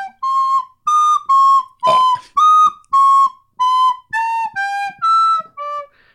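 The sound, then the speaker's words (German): Someone whistles the theme from the film The Godfather alone, about ten clear sustained notes in a slow, stepwise tune, mostly held for under half a second each, with a breathy catch midway. “Das war das, das äh, Theme von dem, einer der Filme, die wir gleich intensiv besprechen werden.”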